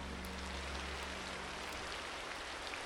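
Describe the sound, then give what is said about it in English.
Steady rain falls in a dense, continuous hiss, with faint droplet patters scattered through it and a low rumble underneath. No voices, just an even, moderately quiet downpour throughout. “Now, we don't have the exact date that the madness began, but we do know what the weather was like. It was rainy.”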